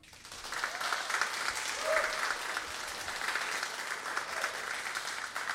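Steady audience applause, a dense wash of many hands clapping at a fairly even level for several seconds, with faint cheers or whoops mixed in and no talking over it.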